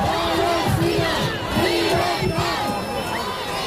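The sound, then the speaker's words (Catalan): About 4,500 people on a Sunday march in Barcelona in support of the Palestinian people chant loudly in unison. Their voices rise and fall in a steady rhythmic pattern of repeated shouted phrases, with a dense, continuous roar underneath. “Declaracions abans d'una marxa en suport al poble palestí que s'ha celebrat aquest diumenge a Barcelona, on han participat unes 4.500 persones.”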